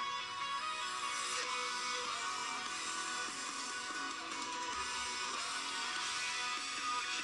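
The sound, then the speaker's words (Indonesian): A full-band pop rock song with singing plays loudly and steadily throughout, bright guitars and drums filling the mix with no pauses or talking over it. “… dari …”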